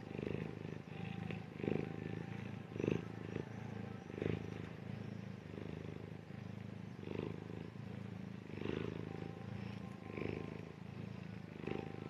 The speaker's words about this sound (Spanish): hasta podemos escuchar su ronroneo